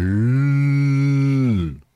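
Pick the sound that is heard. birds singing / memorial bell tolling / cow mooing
cow mooing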